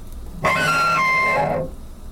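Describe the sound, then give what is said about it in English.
A bowed cello sounds a brief, sustained phrase of about a second, gliding from one rich, resonant note to a slightly lower one, clear with no talking. “I think she really intended to play the cello beautifully.”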